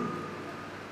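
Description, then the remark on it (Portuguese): Steady rain hisses in a dense, even wash of droplets that stays constant for the whole second, with no voices over it. “É uma beleza com essa chuva.”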